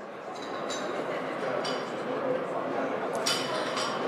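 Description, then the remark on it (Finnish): A steady, loud din of many people talking at once at the coffee reception in the State Hall for the opening of the Finnish parliamentary session, with scattered bright clinks of cups and dishes ringing out above the crowd murmur. “Valtiosaliin on katettu hienot valtiopäivien avajaisten juhlakahvit. Meteli on melko moinen”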